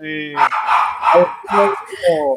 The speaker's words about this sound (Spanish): Con chucho incluido. Con chucho incluido ya en el fondo. Es para darle acá. El ladrido del perrito emocionado por acá, disfrutando … también, que no?